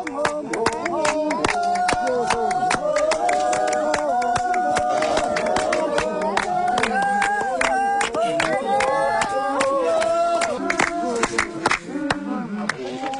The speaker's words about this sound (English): The clapping stops for a moment.